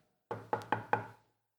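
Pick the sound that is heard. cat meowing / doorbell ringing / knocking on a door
knocking on a door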